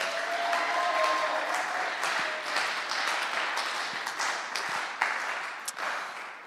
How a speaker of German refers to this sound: Ja, und dann nochmal einen richtigen Applaus für Apostelgeschichte 2, 42 bis 47.